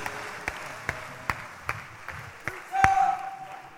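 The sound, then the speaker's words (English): An audience claps hands for the pastor in a steady, even beat, about seven sharp claps roughly twice a second, over a low murmur, with a brief sustained vocal tone rising near the end. “Please clap your hands for the pastor.”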